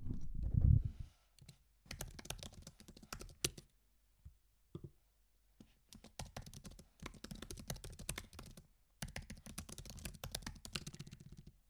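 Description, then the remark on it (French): Rapid clicking of keys on a computer keyboard as someone types up a to-do list, fairly crisp, coming in several bursts of typing separated by short pauses, after a low thump at the start. “Ça va vous faire un petit ASMR clavier.”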